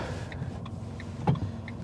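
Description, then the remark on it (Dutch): Steady low rumble of a car interior, with soft tonal chirps and a brief clunk around the middle, no voices, moderately quiet. “Misschien moet ik voortaan niet in de, in de auto mijn podcast opnemen.”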